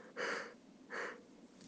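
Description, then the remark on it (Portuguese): Two short, breathy exhalations from a yawn, fairly quiet, with a brief pause between them and no talking. “Já vi bucheiro, bucheiro, bucheiro bocejo. Então quer dizer que ainda tá vindo sono.”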